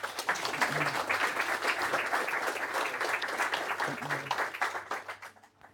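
Sustained applause from an audience, a dense crackle of many hands clapping at a steady level for several seconds before tapering off quickly at the end, with faint voices mixed underneath.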